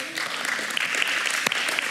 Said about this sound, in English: we oh, can clap, that's fine.